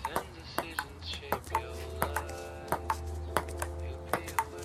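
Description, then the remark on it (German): A table tennis ball clicks back and forth in a steady rally between a father and his daughter, sharp light taps arriving about twice a second, with soft voices and a low hum underneath. “In der Szene spielen Vater und Tochter erst Tischtennis und tauchen dann ab im Hotel Pool”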